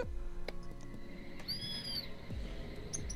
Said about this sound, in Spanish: Escucha las aves, ¿no?